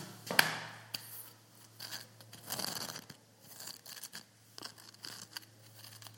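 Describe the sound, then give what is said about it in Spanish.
Irregular scratching and scraping strokes against the rough original rock of a chamber's solid wall, a sharp rasp at first followed by softer gritty scrapes, with a faint steady hum in the background. “Estoy rascando la roca.”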